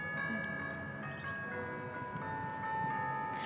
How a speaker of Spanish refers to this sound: Este, ay, qué bonito suenan las campanas. Oiga.